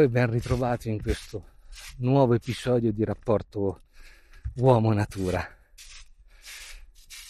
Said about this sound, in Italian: Quello che hai sentito è il rumore delle foglie secche che faranno eh, da compagnia alla camminata di oggi perché sto andando in vetta a Monte Cucco.